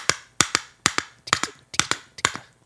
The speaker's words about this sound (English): You can't really clink a jicara. It just kind of does a tap tap.